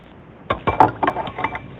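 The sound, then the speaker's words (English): Tang drink mix is stirred in a glass, a spoon tapping the sides in a quick run of about six bright clinks, with no voices. “You can mix it in a glass.”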